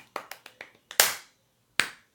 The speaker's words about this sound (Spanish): Quiero un aplauso.